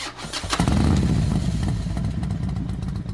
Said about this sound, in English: The sound of a motorcycle engine revving up is a sound that I both detest and love.